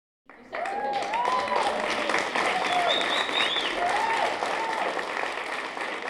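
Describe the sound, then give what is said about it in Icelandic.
Steady, dense applause from a crowd at an honorary awards ceremony of the List án landamæra arts festival in Safnahúsið of Listasafn Íslands, celebrating the art group Hlutverkasetur. It starts abruptly and continues at an even, loud level throughout, with a few faint whistles or cheers rising above the clapping. “Hlutverkasetur er listahópur ásins og var vel fagnad við verðluna aðfendinguna í dag.”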